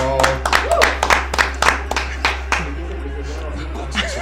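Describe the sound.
Clapping for a member of the production team, in a steady, even rhythm, about two claps a second for a couple of seconds, then it trails off into scattered voices over a constant low hum.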